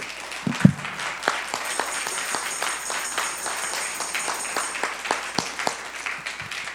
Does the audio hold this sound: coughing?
no